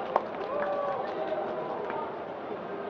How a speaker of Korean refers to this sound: 네, 뜨거운 박수 부탁드립니다.